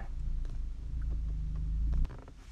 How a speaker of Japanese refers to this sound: また隣にね車が来てまあ車が来るのはいいんですけどなんかうるさそうなね車がなんでこの広大な駐車場の中でこの僕の隣に来るんですかね